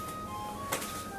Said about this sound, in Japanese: あれうちの時計なんですあこの音入ってるかな入ってないかなあれねもう十何年前にね十数年前にあの長岡市のデパートの新年のなんだっけ福引きみたいなやつで残ってた2等だか1等だっけうん1等じゃないな結構上の方の商品が当たりましてもらった時計で掛け時計であの毎聖時になるといろんな音楽が鳴ると